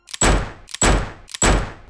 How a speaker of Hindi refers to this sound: 30 जनवरी 1948 को शाम पाँच बजे बिरला हाउस में जब गांधी जी अपनी प्रार्थना के लिए निकले तब गॉडसे ने उन पर तीन गोलियां चलाईं